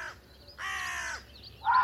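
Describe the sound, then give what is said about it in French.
Carrion crows caw in alarm at a fox searching for food in a forest: loud harsh calls, one at the start, a long rasping caw in the middle, then another loud caw at the end. No one speaks. “Des corneilles noires ont compris qu'un danger était proche.”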